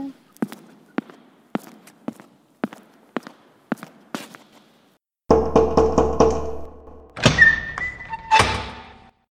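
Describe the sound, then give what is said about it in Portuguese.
A steady run of about nine sharp knocks on a door, evenly spaced, followed by the rattle of a handle and a loud creaking as the door swings open. “Pode entrar. Pode entrar.”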